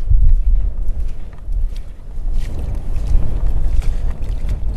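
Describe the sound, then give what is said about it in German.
Wind gusts across open tidal mudflats (the Watt), a loud, continuous low rumble buffeting the microphone, with faint crackles in the background and no voices throughout. “Du hast mir vorhin gesagt, ähm, man hört es leider durch den Wind nicht ganz so gut, dass das Watt auch schmatzt so richtig.”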